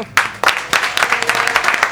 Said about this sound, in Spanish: Así que vamos a recibir con un fuerte aplauso a la banda de esta noche que reincide en 7030.